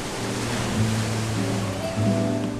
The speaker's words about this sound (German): Am Rand der Bucht schlägt die Brandung wummernd gegen Felsen, die der unruhige Atlantik im Lauf der Zeit schon deutlich angenagt und ausgehöhlt hat.